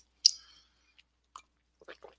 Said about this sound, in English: excuse me while i take a sip of coffee it soothes the soul